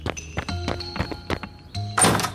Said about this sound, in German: Evans Spiegel schaut auf, als Brown die Tür aufreißt.